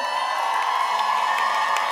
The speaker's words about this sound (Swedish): Jag undrar vilken tribe som kan jubla mest.